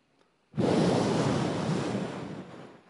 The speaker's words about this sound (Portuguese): Um vento forte. As ondas, eu, eu sou pescador, eu sei o que é isso.